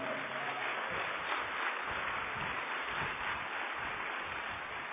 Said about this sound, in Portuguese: Aplauda Ele forte, Ele diga.